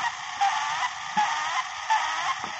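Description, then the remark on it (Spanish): A voice imitates a duck, giving four nasal, honking quacks in a steady rhythm, fairly loud, with no other talking. “Hago como pato.”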